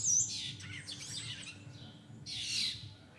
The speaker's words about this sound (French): Si je me trompe pas, c'est des étourneaux, hein, mais. Et puis il y a plein de martinets aussi.